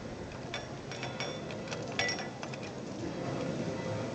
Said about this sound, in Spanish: Como podéis comprobar, vuelve un poquito este murmullo porque son las 4 y 51 minutos de la tarde, cuando ahora el nazareno encargado de la llave, lo podemos escuchar, empieza a abrir este candado.